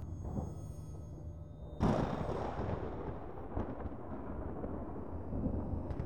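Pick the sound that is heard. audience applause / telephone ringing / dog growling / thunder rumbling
thunder rumbling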